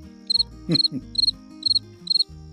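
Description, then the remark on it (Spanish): A cricket chirping sound effect: about five quick trilled bursts repeating at a steady rhythm, fairly clear, with a brief low murmur partway through and faint background hum. “Cri, cri, cri.”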